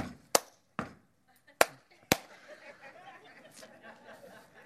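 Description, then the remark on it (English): Four sharp, loud hand claps land at uneven, off-beat intervals, showing how some people clap off the beat during church worship, then give way to a low, busy murmur that may include soft chuckling. “And then there's some people when they clap.”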